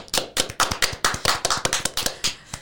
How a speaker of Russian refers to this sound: прям аплодисменты Тихону Жизневскому.